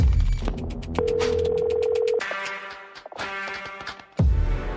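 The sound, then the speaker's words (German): A telephone rings through a phone line on a call recorded by a radio journalist, with a steady tone and repeated electronic pulses against a busy, slightly noisy background before the line clicks and a louder burst at the end. “Den Anruf hat sie damals aufgezeichnet.”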